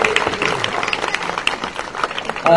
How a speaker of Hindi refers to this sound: तो भरपूर तालियां बजाकर सबसे पहले एक बार उन्हें एक बार फिर से वेलकम करेंगे